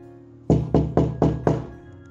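Five firm knocks on a wooden door in an even, steady rhythm, fairly loud, with no voices present.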